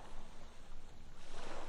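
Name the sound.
ocean waves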